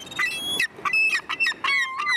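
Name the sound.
black-headed gull calls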